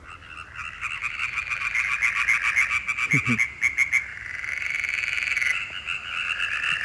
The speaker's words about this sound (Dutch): Zitten wat gewone kikkers ook tussen. Maar de kwak, kwak, kwak, kwak, kwak dat zijn de boomkikkers, hè? Ja. ja, als je er soms echt honderden bij elkaar hebt roepen, of tientallen, dan eh, kan het echt een heel oorverdovend hard geluid zijn